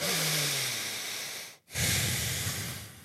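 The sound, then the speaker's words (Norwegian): Calm nasal breathing of a person running during interval training: one long, steady inhale, a brief pause, then an equally long, soft exhale through the nose, hissing and even, with no talking. “Hvis jeg trener, har noen felles intervalløkter med noen andre munnpustere, da, så hører jeg dem uh, vidåpen munn puste og sånn, bruke masse, masse energi på denne ekstremt harde pustinga, så går pusten min sånn”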